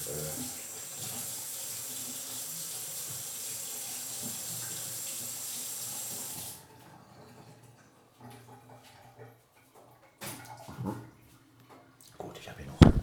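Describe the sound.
Hot water runs steadily from a tap for several seconds, a loud hiss, then stops, leaving quieter clinks and handling noises with a voice in the background.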